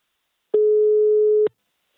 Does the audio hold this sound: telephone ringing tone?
yes